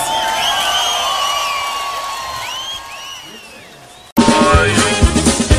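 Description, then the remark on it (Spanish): A crowd cheers and whoops with many overlapping voices, then the sound cuts abruptly to loud, dense applause with shouting mixed in during the final second or so. “Un aplauso, por favor.”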